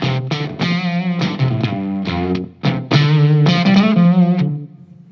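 An electric guitar played through a mini amp with overdrive at low gain, strummed chords and single notes carrying a slightly gritty, dirty edge, with a sustained final chord fading out.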